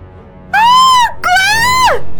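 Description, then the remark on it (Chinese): A person lets out two loud, high-pitched screams of terror while running out of a bedroom, the first rising and then falling off, the second longer and sustained before dropping sharply, with no other voices. “夏西大叫着跑出了卧室”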